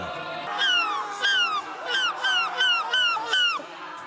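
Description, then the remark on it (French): A person who is a world champion at imitating seagulls gives about six loud, shrill seagull cries in quick succession, each sliding downward in pitch, in a steady rhythm with no talking. “Je sais faire la mouette depuis seulement un an.”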